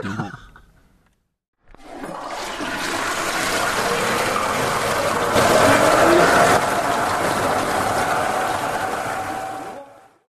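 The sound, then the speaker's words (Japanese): A brief voice, then a loud, steady rush of gurgling water, like a toilet flushing, churning for about eight seconds before cutting off abruptly. “僕はもうすぐに、いや、その単純に推薦音なんじゃないかと、うんうん、強く言いました。”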